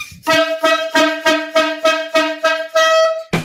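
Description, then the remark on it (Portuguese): A loud, brassy horn sound effect (corneta) blares in a rapid series of about nine pulsing honks, a steady buzzing tone that throbs rhythmically for three seconds before cutting off abruptly. “Hoje eu não esqueci a corneta e ela tá afiada aqui, ela tá afiada pro PV responder.”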